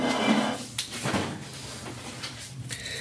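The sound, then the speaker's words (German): A refrigerator door is opened and shut as wrapped dough is put inside to rest for an hour, giving a few short knocks and a soft thud over a low steady hum, with no one speaking. “Dann kommt er in den Kühlschrank und soll da eine Stunde ruhen.”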